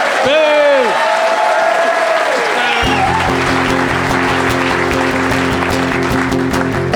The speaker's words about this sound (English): Boo, boo, stop doing that down there, stop that. Be nice to him.